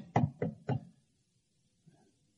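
Three firm knocks on a door in quick, even succession, fairly loud, followed by near silence with only a faint soft sound a moment later.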